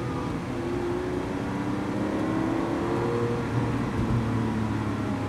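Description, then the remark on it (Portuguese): A car's big engine drones loudly and steadily from inside the vehicle, its pitch climbing gradually as it revs up while driving, with no voices. “Com esse motorzão, meu. Não, torque ele tem.”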